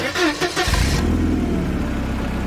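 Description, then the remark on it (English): An early motor car engine cranks with a brief burst of noise, then catches and settles into a loud, steady, low rumbling run, with no voices. “you know, the motor car is going to destroy my job.”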